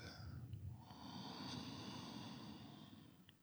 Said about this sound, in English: Take a sniffing inhalation and notice the tightness, the smallness of the breath, and follow it by a deeper chesty breath.